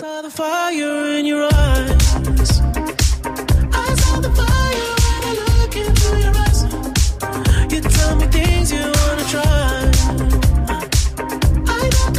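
A pop song plays loudly and steadily: a brief sustained synth intro, then a full beat with punchy bass and drums drives on throughout, with no talk over it.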